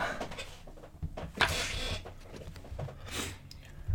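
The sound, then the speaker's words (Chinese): A chair being shifted: a few scraping, rustling bursts with low thumps and creaks, moderately loud, with no one talking. “正好我挪一下椅子。”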